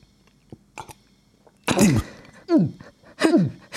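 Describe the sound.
A voice imitates the loud gulping swallows Povel Ramel's wife made every time she swallowed: a few soft clicks, then three forceful throaty gulps with a sliding, strained tone, repeating with brief pauses between them.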